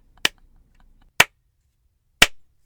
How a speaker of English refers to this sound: I'm slow clapping for you.